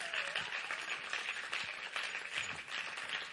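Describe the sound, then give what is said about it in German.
Steady, warm audience applause welcoming several volunteers onto a stage, a dense wash of many hands clapping at an even loudness throughout, with no pauses or individual claps standing out. “Und gebt mit mir einen herzlichen Applaus.”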